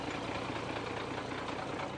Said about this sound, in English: I must note the bulldozer is called Babe and it's pink.